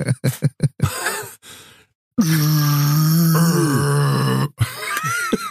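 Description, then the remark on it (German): A quick series of swallowing gulps of soda, a brief pause, then a long, loud, drawn-out belch that rumbles for about two seconds before trailing off into a few softer noises. “du schaffst es nicht, 0,5 Liter schnell zu trinken und nicht einmal zu klingen wie ein T-Rex vor der Paarung.”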